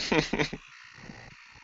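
Two quick, buzzy chirps sound at the start, croaky and cricket-like, coming through a person's open microphone. They fade into a faint, steady electronic hiss for the rest of the moment.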